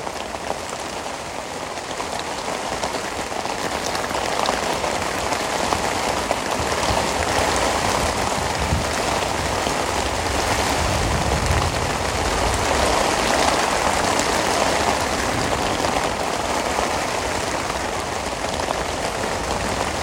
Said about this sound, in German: Ah, jetzt regnet sich noch ein bisschen mehr ein hier.